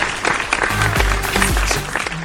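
A burst of dense, steady clapping from a crowd, loud throughout, with some faint voices or cheers mixed in underneath.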